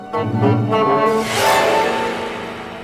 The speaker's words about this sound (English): That is the sound of ping pong balls inside the piano. the pianist swipes the strings with wire brushes and it sets these ping pong balls bouncing around and it's just to create a slightly rattling effect